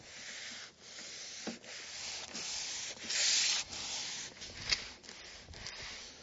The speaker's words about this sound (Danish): Så bliver jeg færdig med at oliere mit bord. Jeg har slebet det, og så har jeg givet det en afsluttende gang olie, så nu kan det holde over mere.